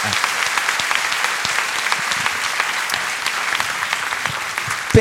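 A crowd applauds steadily, a dense, even wash of many hands clapping at constant loudness throughout, with a brief louder burst right at the end.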